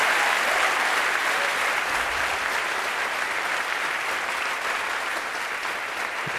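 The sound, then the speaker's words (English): Sustained applause from a large audience, a dense, steady wash of clapping that stays loud and even throughout with no voices standing out. “Thanks for that wonderful applause.”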